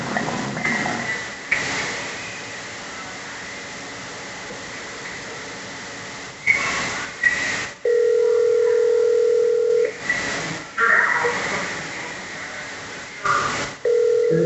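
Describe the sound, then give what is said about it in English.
An outgoing phone call to a sister rings on the line, a steady electronic ringback tone repeating twice with a pause between, heard over faint hiss and clicks with no one talking. “It's ringing.”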